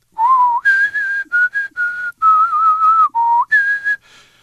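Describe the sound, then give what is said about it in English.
A person whistles the melody of the Nocturne in E flat major, Opus 9, number 2, slow and lyrical, clear and fairly loud, in several flowing phrases separated by brief pauses, with no talking. “Right, and of course, one uh, masterpiece that you've probably heard before and you hear every day if you take the MRT is the Nocturne in E flat major, Opus 9, number 2, which goes like this”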